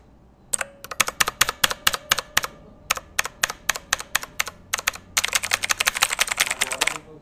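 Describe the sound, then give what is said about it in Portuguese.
Crisp, loud clicks of the mechanical switches of a Redragon Dark Avenger keyboard as someone types, starting with a steady run of individual keystrokes and ending in a quick, dense flurry. No voices. “Olha a questão do clique dele aqui, ó.”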